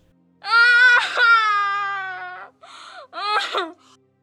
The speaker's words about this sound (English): Faiza had just removed the little girl's gag, and Arihant had to listen to the child's heartrending scream.